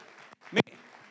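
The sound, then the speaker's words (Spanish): An audience applauding God, a soft, dense patter of many hands clapping at once, with a brief louder burst in the middle of the short stretch. “Démosle un aplauso a Dios, hermanos. Denle un aplauso.”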